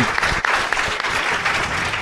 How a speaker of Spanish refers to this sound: así que gracias a todos por venir. Un aplauso para usted.